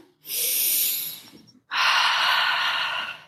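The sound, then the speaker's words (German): A deep, audible breath taken as a breathing exercise: a long airy inhale, a brief pause, then an equally long, forceful exhale, with no talking. “ist in Dialog oder in diesem Austausch, wenn was immer es in mir auslöst, ja, an Emotionen, an Gedanken, eine sehr kraftvolle Übung ist, tief zu atmen”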